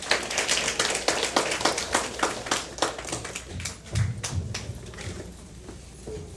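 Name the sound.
audience applause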